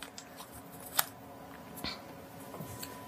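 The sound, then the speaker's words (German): A page turns with a crisp, brief papery snap, followed by a softer flick of paper a moment later, with no one speaking. “Wollen wir umblättern?”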